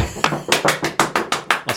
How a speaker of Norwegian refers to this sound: Må vi ikke ha en applaus? Ja. Jeg vet ikke, Skal vi applaudere at vi har vært så flinke at vi har holdt gjennom?